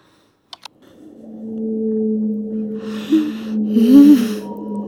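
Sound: whale song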